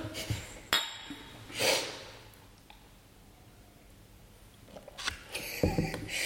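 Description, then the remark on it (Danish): Glasses clink together in a toast, a couple of sharp taps early on and a busier cluster of clinks and handling noise near the end, with quiet room sound between. “Skål. Skål.”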